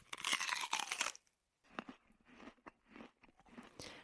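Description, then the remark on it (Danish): Crunchy chewing of a packed lunch, a loud burst of crisp crunching at first, then a pause followed by several softer, irregular bites and chews with no talking. “Og når vi har brug for noget energi, så spiser vi vores medbragte madpakke.”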